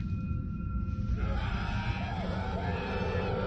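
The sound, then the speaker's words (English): Dozens of voices scream in agony together, their overlapping cries swelling into a loud, dense, sustained wail over a low rumbling background, heard from inside a narrow, dusty tunnel. “I was crouching in a narrow tunnel surrounded by dust and shadow when I first heard the screams.”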